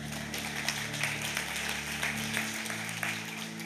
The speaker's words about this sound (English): You can clap. Go ahead and clap. That's good.